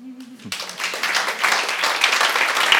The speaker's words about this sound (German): Danke für einen Applaus.